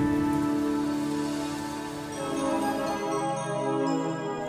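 Steady rain patters and hisses throughout, blended with sustained, layered musical tones; the wash of rain stays fairly even and moderately loud, with no voices.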